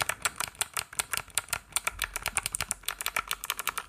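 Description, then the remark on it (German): Rapid typing on a Vortex Poker mechanical keyboard with Box Navy switches and a metal case weighing about 800 grams, a steady stream of sharp, heavy clicks, roughly eight keystrokes a second, with no voices. “Das sind die Box Navies, die sind sehr, sehr satt, was aber auch so ein bisschen durch die Tastatur kommt.”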